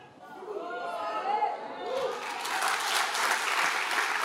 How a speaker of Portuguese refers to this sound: As palmas estão tímidas.